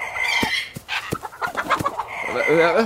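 A turkey clucks in a quick run of short, sharp notes, about five or six, then breaks into a louder warbling call near the end, as someone is told to take an axe to it. It sounds clear, with no one speaking.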